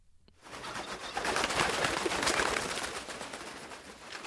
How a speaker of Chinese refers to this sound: 有鸟儿低低的飞下来，发出一声声的鸣叫。也许那里面还有发现有人死去而飞来的老鹰。